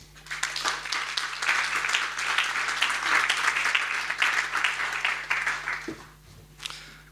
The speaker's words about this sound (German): Gebt ihnen doch einen herzlichen Applaus.